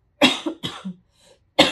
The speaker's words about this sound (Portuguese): ele tosse, é o que ele faz. Não, já tinha avisado, peraí.